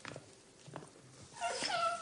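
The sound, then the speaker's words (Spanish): A dog on a leash, being pulled into a hall, whines in short, high-pitched whimpers, quiet at first and growing a little stronger and more drawn out toward the end, with no one talking. “Pascual llega al salón tirando de la correa de su perro”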